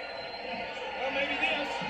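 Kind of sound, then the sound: crowd, wrestling arena crowd cheering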